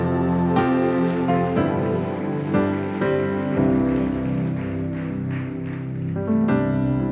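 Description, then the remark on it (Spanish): An audience applauds steadily for several seconds, the clapping blending into a continuous patter beneath loud, sustained keyboard chords that change every second or so. No one speaks. “Si es así, dele un aplauso a él.”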